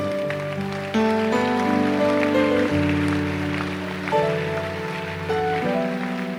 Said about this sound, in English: The, the clapping is free.